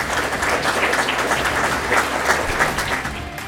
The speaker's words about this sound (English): Folks, I really appreciate it. I want to uh, maybe give a big round of applause to our panelists up here.